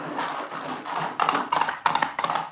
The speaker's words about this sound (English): We've left the launch. We've got horses, and we follow on the track along the river.